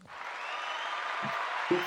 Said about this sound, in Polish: Zresztą mamy oklaski